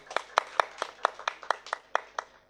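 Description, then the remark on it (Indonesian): Audience clapping in a steady, even rhythm, about eleven sharp claps landing together at a brisk pace, moderately loud with no talking over them. “Tepuk tangan untuk Mas Cahyo.”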